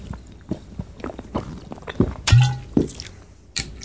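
Gulping and swallowing sounds with small wet clicks and sloshes as someone drinks water from a one-liter bottle, several irregular swallows with a louder gulp in the middle, no talking.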